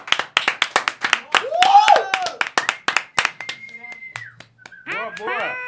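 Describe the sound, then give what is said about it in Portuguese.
A small group in a studio claps quickly and steadily for a few seconds, with a sharp whistle and excited voices whooping near the end as the clapping fades. “Salva de palmas pro”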